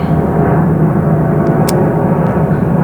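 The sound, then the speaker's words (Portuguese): A loud, steady roar of an airplane passing overhead in the sky over São Paulo, a dense low rumble filling the whole moment with no break, drowning everything else out. “O avião faz todo esse barulho?”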